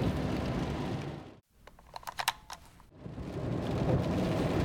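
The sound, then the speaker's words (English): Steady, dense rain hisses loudly, breaks off briefly for a quiet stretch with a few sharp clicks and drips, then returns just as heavy. No one speaks. “It does seem cheerful despite the rain.”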